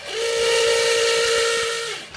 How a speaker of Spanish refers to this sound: Con esta pregunta terminamos porque ya estamos llegando al tiempo y ahí Tulio nos está diciendo con la chicharra de que ya es tiempo.